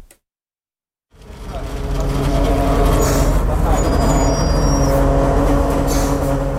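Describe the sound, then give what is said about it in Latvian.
After a second of silence, the large engine of a double-decker passenger bus with Ukrainian license plates, adapted for patient transport, rumbles steadily, with short hissing bursts of air brakes as it pulls in and idles at Riga East Clinical University Hospital. “Pie Rīgas Austrumu Kliniskās Universitātes slimnīcas piebrauc divstāvīgs pasažieru autobuss ar Ukrainas numurzīmēm.”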